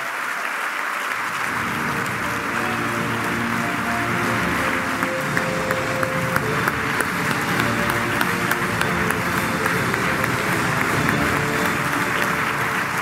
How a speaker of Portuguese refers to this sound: aos nossos dois líderes regionais, ao seu grupo parlamentar e ao seu grupo de trabalho, uma enorme salva de palmas. É um orgulho que este partido tem em vocês os dois.